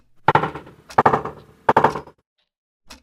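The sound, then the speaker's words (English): Knocking at a door comes in three loud bursts, each a quick cluster of hard raps, followed by a pause and a single faint thump. No one speaks. “I think someone is at the door.”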